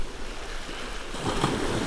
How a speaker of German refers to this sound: Ja, Freunde, es ist so schön hier in der Sonne zu sitzen und das Rauschen der Wellen zu genießen.